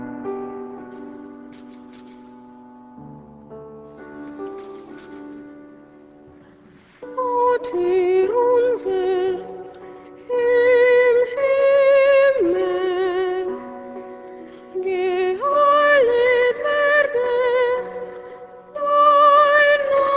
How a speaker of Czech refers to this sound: Modlitba odčenáš od Arvo Perta zazněla za klavírního doprovodu skladatele v podání jeho syna při letošním předávání cen nadace Josefa Ratzingera papežem Františkem.